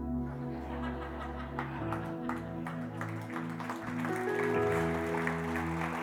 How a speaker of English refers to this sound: We clap because we know we're annoying. It's okay.